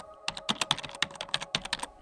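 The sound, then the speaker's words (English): Keys clatter on a computer keyboard in a quick, uneven run of crisp clicks, steady typing at moderate volume with no voices. “Then, after a second, Ollie began typing.”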